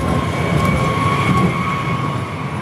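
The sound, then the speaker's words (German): A tram pulls into a tram stop, a steady rumbling rush with a thin electric whine riding on top, holding loud and even throughout with no voices. “Also man weiß nicht, welche Tram da jetzt einfährt.”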